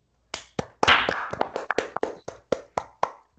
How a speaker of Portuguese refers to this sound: Parabéns. Vamos bater palma no 3, gente. No 3, todo mundo batendo palma. Um, dois, três.